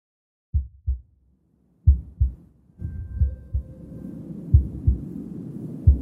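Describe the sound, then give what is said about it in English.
A deep heartbeat thumps in paired lub-dub beats, starting alone and then continuing under a swelling low drone and rumbling background. The beats are strong and steady. “Triggering change, one heartbeat at a time.”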